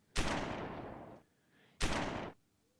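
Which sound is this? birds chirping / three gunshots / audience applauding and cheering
three gunshots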